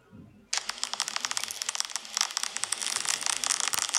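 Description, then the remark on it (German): Dense, fizzy crackling of milk foam on a cappuccino, a steady stream of tiny pops and bubbles, amplified, starting abruptly after a brief quiet moment. “Das ist interessanterweise ist das das Knistern von Milchschaum auf dem Cappuccino.”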